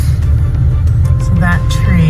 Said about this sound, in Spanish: dejando una imagen de destrucción, como la zona de alta montaña de Oregón que recorre en coche esta mujer, que describe así lo que va encontrando a su paso.